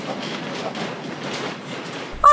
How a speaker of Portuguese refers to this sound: Muito bem, nós neste momento nós estamos a ir de elétrico para onde? Sim, para a Estrela.